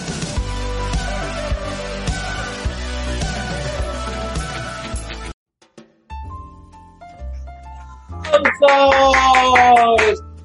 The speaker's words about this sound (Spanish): Bienvenidas, bienvenidos al programa 200 de Dramarama. ¡Aplausos!